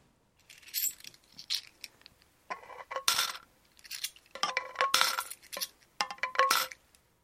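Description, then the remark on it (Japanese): Coins clink and rattle as they drop into a savings jar of cash, several bright metallic bursts in quick irregular succession with ringing chinks, no talking. “現玉貯金今時珍しいんちゃう知らんけどまずあの僕給料もらったらすぐ使ってまうから貯金は素直に尊敬ですえー、っとメッセージ「この瓶がいっぱいになったら何を買おうか楽しみです」ですね”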